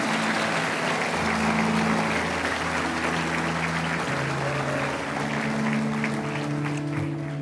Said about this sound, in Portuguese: Aleluia, dê uma salva de palmas a Ele.